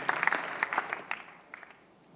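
A church audience applauds, many hands clapping in a dense, crackling wash that thins out and fades toward the end, with no voices over it.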